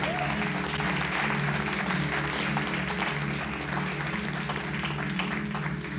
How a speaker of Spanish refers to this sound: Dale un aplauso a Él.